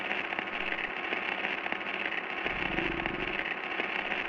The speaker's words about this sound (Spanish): Ah, no se oye nada, solo, solo estática.